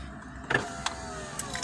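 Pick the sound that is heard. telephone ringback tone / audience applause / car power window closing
car power window closing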